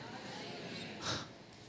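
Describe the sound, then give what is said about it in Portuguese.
A single short snort, like a voice imitating a snore, rises briefly out of a quiet, hissy background and fades quickly. “Vai dormir para babar, roncar.”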